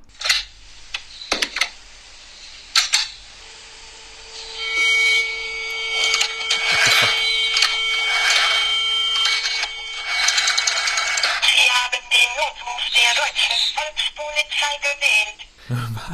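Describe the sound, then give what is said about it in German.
An old rotary telephone being dialed to call someone: a few sharp clicks, then repeated whirring, ratcheting sweeps as the dial spins back, with rapid mechanical clicking throughout. No one speaks. “Dieser, dieser Podcast wird nämlich präsentiert von dem guten alten Telefon mit der Wählscheibe.”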